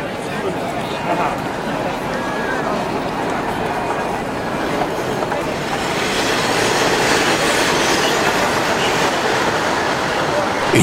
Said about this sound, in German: während der Schnellzug zwischendurch die unglaubliche Geschwindigkeit von 200